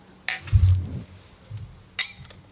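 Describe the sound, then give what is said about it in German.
Two bright clinks of glasses touching in a toast, about two seconds apart, with a soft low thud near the first and quiet room tone between them. “Machen wir mal Prost.”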